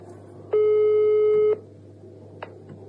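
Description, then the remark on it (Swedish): A single steady electronic telephone ringing tone on a call to Försäkringskassan, the Swedish Social Insurance Agency, sounds for about one second, loud, then stops; a faint click follows over a low background hum. “Eh, Mitt samtal med Försäkringskassan.”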